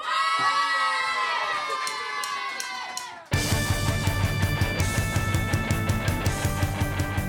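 A crowd of rioters storming in, in a radio fiction, shouts and screams in a dense, chaotic roar of high voices for about three seconds, then cuts abruptly to loud, driving music with a steady pounding beat.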